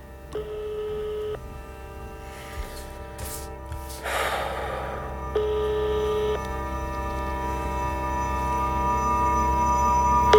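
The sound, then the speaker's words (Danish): A phone line's ringback tone from a call placed to a night watchman's number sounds twice, each ring about a second long with a long pause between, over a steady low hum, with a short breathy rustle in the gap. “Den ringer fire gange.”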